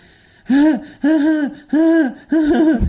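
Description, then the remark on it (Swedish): A voice imitates panting, four loud, evenly spaced breathy gasps in quick rhythm, each a short voiced huff, alone with no talking, mimicking people who stand panting, laughing and staring at a man. “som sån eh, bara står och flämt, flås, skrattar och stirrar på honom.”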